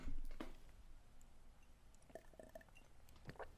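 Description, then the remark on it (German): Quiet mouth and liquid sounds of someone taking a sip of a drink, with a soft slurp and small wet clicks scattered over a few seconds, no talking. “Ich Muss einmal einen Schluck trinken.”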